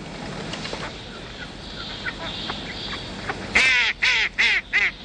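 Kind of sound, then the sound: bird, ducks quacking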